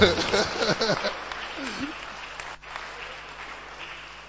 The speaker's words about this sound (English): Those who are not clapping. You see, your, your clapping cry is not bold.